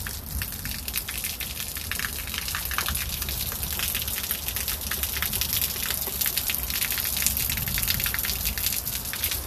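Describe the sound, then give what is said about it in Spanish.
Steady, heavy rain pours down outside, heard through an opened door, in a dense continuous hiss with splashing drops, loud, filling the whole stretch without any voices. “voy a salir, voy a abrir la puerta para que escuchen. Escuchen la lluvia.”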